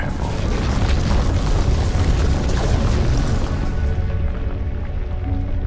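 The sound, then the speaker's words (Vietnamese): A deep, loud earthquake rumble roars steadily for several seconds, thick with low booming and crackling debris, its brighter edge fading slightly toward the end. “Sau ngọn gió có một trận động đất làm đất rúng động.”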